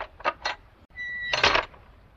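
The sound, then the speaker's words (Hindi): Someone knocks on the latch of a closed door at a lodge near a station: three quick metallic knocks in an even rhythm, followed by a brief high ringing tone and a louder, longer clattering burst. No voices are heard. “तसल्ली के साथ मैंने अपना बैग उठाया और जा पहुंचा सीधे उसके दरवाजे पर दरवाजा बंद था मैंने कुंडी खटखटाई”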